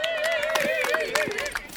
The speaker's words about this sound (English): Ladies and gentlemen, Please welcome my next guest, uh, the former world champion and Olympic silver medalist of heavyweight wrestling, Thomas Johansson. Please, an applause.